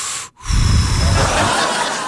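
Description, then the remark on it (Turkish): Loud, hissing breath rushing through the nose, a steady airy exhale after a brief pause, noisy and sustained with no talking. “Ağızdan da olsa normal. Burundan geliyor.”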